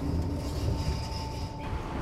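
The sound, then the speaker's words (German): An S-Bahn commuter train rolls steadily along the rails, a continuous loud rumble with a faint high whine over the top, heard as if from on board. “Die kann mit der S-Bahn und dem Bus fahren zur Thalkirchner Straße.”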